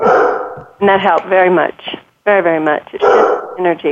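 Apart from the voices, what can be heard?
dog barking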